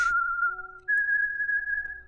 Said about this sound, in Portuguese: Durante essa madrugada, minha mãe estava acordada quando, no lado de fora da casa, ela escutou três assobios.